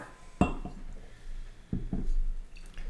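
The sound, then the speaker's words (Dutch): Beer glasses clink in a few sharp knocks, the first one loudest, with soft pouring and dripping sounds between them as three craft beers, from Mikkeller, Bottle Logic and County, are poured side by side. No voices. “Dan zal ik de we hebben een County ook even tegelijk uit te schenken.”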